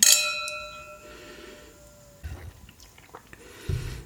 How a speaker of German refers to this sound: Ja, gut. Dann können wir anstoßen. Darf ich jetzt trinken?